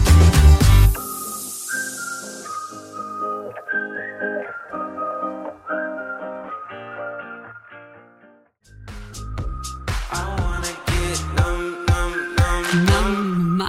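A pop song plays on the radio station Antenne Bad Kreuznach, with a bright whistled melody over steady chords, then after a short drop a fuller beat with punchy drums kicks in and the track grows louder.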